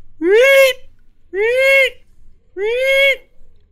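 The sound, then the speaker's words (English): A voice imitates a high-pitched creature screech three times, each a loud, drawn-out rising-and-falling cry, evenly spaced with brief pauses between and no other sounds around them. “you hear the fluttering of wings and a high pitched”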